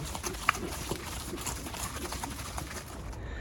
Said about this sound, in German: So, man hört sie nur, man sieht sie noch nicht. Jetzt kommen die Pferde aus dem Wald, wo sie getrabt sind und es geht zur Rennbahn.